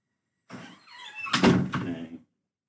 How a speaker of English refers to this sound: But like, well, oh, let me close the door.